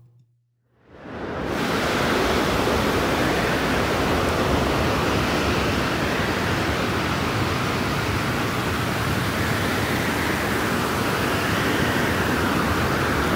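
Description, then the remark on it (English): A steady, full rush of ocean surf on a beach that fades in over the first second and then holds evenly, with only gentle swells in intensity and no voices. “Sounds like I'm at the feel beach. Like I'm getting sleepy. Yeah, like I'm laying on the sand.”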